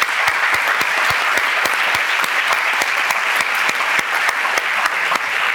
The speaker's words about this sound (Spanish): Un aplauso, va, un aplauso.